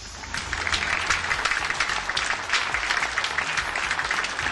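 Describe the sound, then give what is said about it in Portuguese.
Steady applause from a group, dense overlapping claps at an even loudness throughout, with no talking over it. “Ele pediu palmas e estão suas palmas.”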